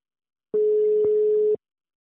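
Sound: telephone ringing tone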